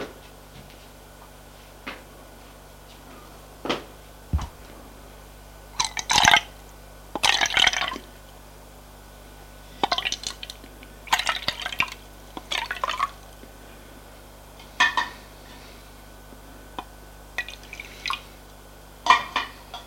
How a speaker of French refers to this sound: que le lait a bouilli, prends la casserole, la casserole et va déverser le lait dans le bol des enfants.